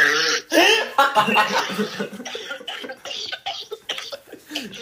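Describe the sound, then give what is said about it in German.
A loud fit of rapid, hacking coughs repeats in ragged bursts for several seconds, with strained, breathy gasps between them that sound half like laughter. “Lachst du oder hustest du?”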